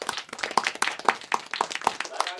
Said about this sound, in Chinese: 我们今天这个话题呢，也请到了一些这个新老朋友吧啊，我们先掌声欢迎一下他们，好不好？让我们掌声有请